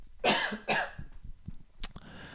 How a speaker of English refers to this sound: That's a cough right there. Am I editing that out? No way.